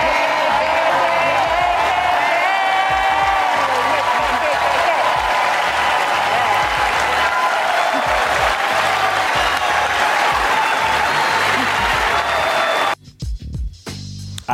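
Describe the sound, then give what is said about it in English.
The Oscars audience applauds and cheers loudly for about thirteen seconds after a joke by the hosts, with dense, steady clapping and voices whooping throughout, Denzel Washington among those clapping, then the noise cuts off abruptly. “I don't know if we need to rewind that, but the first person they showed clapping and laughing and celebrating is Denzel Washington.”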